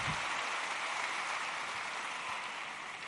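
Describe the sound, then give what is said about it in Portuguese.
An audience applauds Jesus steadily, a dense wash of many hands clapping at once for about three seconds with no voices on top, the sound holding even before easing slightly at the end. “Pode aplaudir Jesus, ele é tremendo.”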